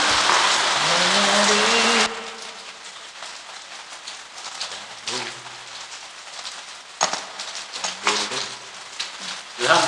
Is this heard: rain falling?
yes